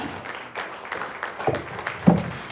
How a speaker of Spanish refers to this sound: Ponte sobre sus pies, amado, en esta mañana y denle un aplauso grande a Jesús, al dador de la vida.